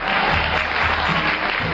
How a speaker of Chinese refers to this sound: 让我们掌声有请两位小选手闪亮登场。